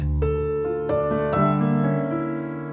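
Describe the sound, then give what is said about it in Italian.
A piano plays a short, slow phrase of a handful of struck notes and chords, each ringing on into the next, clear with no voices; the second theme of Brahms' Rhapsody Op. 79 No. 1. “Il primo esempio che mi viene alla mente è quello del eh, secondo tema della Rapsodia opera 79 numero 1 che fa così, la, la frase parte”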